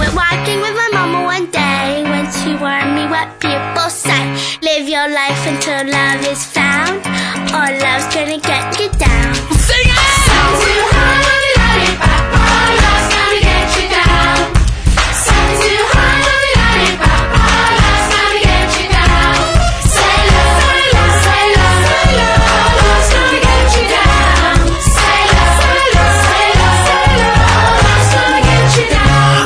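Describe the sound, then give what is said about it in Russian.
An upbeat pop song plays as a mobile ringtone, a top track of the mobile chart, loud and full for the whole stretch, a lighter intro giving way after a few seconds to a driving beat with bass, synths and sung melody. “Самые харизматичные рингтоны и риалтоны из числа тех, что мы слышали в последнее время.”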